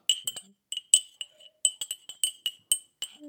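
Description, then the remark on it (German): A spoon clinks repeatedly against the inside of a cup while stirring tea at 7:58, a series of bright, high-pitched metallic taps in an irregular rhythm with short pauses between them. “Ich, ich rühre ja, gerade ja, meinen Tee, weil es ist 7.58 Uhr.”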